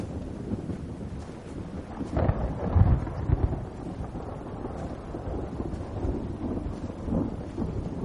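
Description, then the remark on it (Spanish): Steady rain pours down in a dense, continuous hiss, with a low rumbling surge swelling briefly near the middle before settling back into the constant downpour. No one speaks. “En un día de lluvia, Philip se cuela en la carpa del circo, vacía y a oscuras.”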